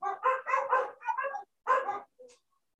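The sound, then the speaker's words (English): A dog, Romeo, yips and whines excitedly as he plays with his toy ball indoors, tail wagging, a quick run of high-pitched barks followed by one longer yelp and a faint final squeak, with no one talking. “He will stay inside and just like play with his toy, little tail wagging.”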